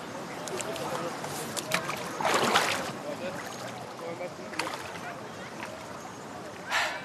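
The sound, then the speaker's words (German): Water laps and sloshes steadily at a side arm of the Danube directly below Greifenstein Castle, with bursts of splashing and a brief louder swirl near the end, like a small boat moving through calm water. “Und direkt unterhalb der Burg Greifenstein ist für den alten Schmied ein Altarm der Donau.”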